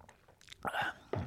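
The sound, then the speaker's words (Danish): A quiet slurping sip of coffee from a cup, a short airy draw followed by a softer second sound, with faint mouth noises before it and no talking. “Det gør jeg ikke. Jeg drikker noget kaffe.”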